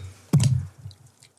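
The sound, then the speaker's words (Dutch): A sudden splash of water poured to rinse spilled coffee off a surface, followed by a brief low, sloshing wash that fades out within about a second. Fairly loud, with no talking. “En je spoelt het gewoon weg.”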